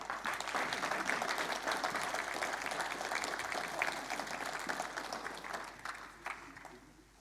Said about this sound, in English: How about we give them a big, big clap?